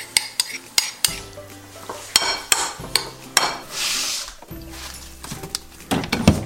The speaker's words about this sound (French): Allez, on va mélanger l'huile, la sauce soja.